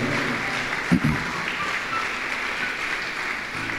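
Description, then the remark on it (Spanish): A crowd claps steadily for a few seconds, a dense, even wash of hand claps with a couple of louder thumps near the start and no voices over it, giving applause to the Lord. “Todos los que viven seguros le dan un aplauso al Señor.”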